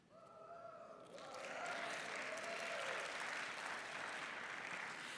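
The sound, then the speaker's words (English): An audience breaks into sustained applause for the speaker, many hands clapping in a dense, steady wash that swells after a second and holds loud to the end, with a few faint voices underneath at the start. “If you knew what I ate yesterday, you wouldn't be clapping for me because I was undisciplined.”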